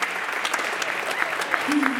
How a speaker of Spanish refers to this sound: Dile un aplauso Señor.